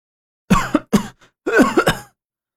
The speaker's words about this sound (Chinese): 杨木睁开眼，一口气喘上来，摸着自己的脖子，不停的咳嗽。